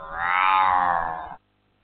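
A single drawn-out meow, loud, lasting just over a second before cutting to silence; it sounds like a human voice imitating a cat.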